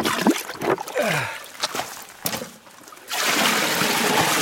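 Water splashes and gurgles in uneven bursts, then settles into a steady, loud rushing pour as a large container, to be used for flotation, is filled with river water. No one speaks.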